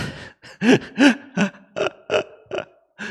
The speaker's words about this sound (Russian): Раньше, по-моему, в молодости, в детстве, я икал тихо, ну, то есть звук какой-то не воспроизводился. А сейчас я прям икаю, прям как в комедиях ебаных.